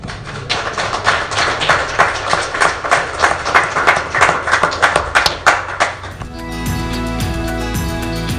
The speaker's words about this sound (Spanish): Y démosle un aplauso al Señor Jesús.